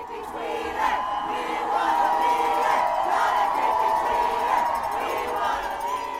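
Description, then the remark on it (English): A huge crowd at the Women's March protest in Washington roars with sustained cheering and chanting, many voices blending into a loud, continuous wall of sound with whoops rising above it. “The Women's March in Washington inspired sister marches all over the world and brought 4,700,000 people to the nation's capital.”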